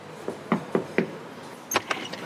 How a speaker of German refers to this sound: So, ich stehe jetzt hier, ihr hört es schon, auf einer super lauten Straße, der Schlesischen Straße. Und ich besuche heute die Girls von der Shitshow Agency, einer Agentur für psychische Gesundheit. Ich klopfe jetzt mal und hoffe, Sie hören es.